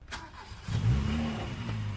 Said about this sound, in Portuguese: No dia seguinte, Alice acordou com o barulho do carro.